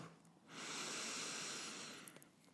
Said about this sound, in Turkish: Evet, derin bir nefes al.